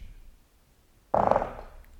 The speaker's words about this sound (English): Oh, yeah, that was a fart, guys. Sorry. Jesus. Yeah. God, that was rough. Um, disgusting.